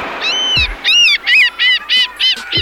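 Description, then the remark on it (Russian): A seagull named Galya, a postal gull, calls out in a run of about six loud, harsh, nasal cries, evenly spaced, with no one talking. “наша почтовая чайка Галя, принесла какой-то конвертик.”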